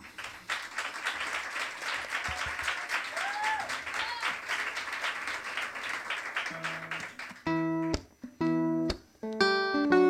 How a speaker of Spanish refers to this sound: Arranca el tercer bloque de esta luna 287 con el maravilloso, impactante aplauso que el público del Café La Palma dedica a la gran ….